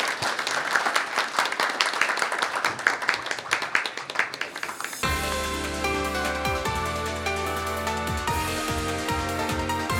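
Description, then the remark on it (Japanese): An audience applauds at the close of a Riso Kyoiku investor relations seminar program, with dense, steady clapping for about five seconds, then the applause cuts off abruptly and upbeat music takes over for the rest. “皆さん大きな拍手をお願いいたしますありがとうございました”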